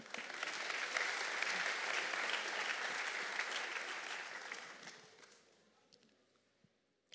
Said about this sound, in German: Please give her a hand as she brings the word of God.